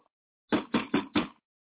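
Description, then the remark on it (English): Four firm knocks on a door in quick, even succession, fairly loud, followed by silence. No voices accompany them. “Damn, somebody's at my door.”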